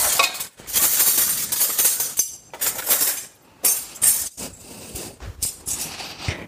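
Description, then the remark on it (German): Metal cutlery clinks and rattles repeatedly as pieces are gathered up, bright jangles in short bursts with brief pauses between, no voices present. “Ah, Besteck habe ich noch nicht.”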